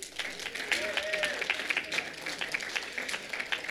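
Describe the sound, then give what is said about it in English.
An audience applauds the volunteers steadily, a dense patter of many hands clapping at an even level for a few seconds, with a brief whistle or cheer rising above it. “Clap it up for our volunteers.”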